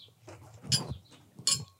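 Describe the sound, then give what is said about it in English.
Two bright, ringing clinks of glasses touching in a toast, about three-quarters of a second apart, with a soft low murmur of voices underneath. “Clink, ching, ching, clink, clink.”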